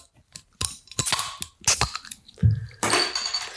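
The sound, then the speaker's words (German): A beer bottle is levered open with a folding ruler: several sharp clicks and scrapes, a bright metallic pop, then a steady fizzing hiss of escaping gas, with no talking. “Heute nicht ja, stilecht mit dem Textmarker, sondern mit einem Zollstock.”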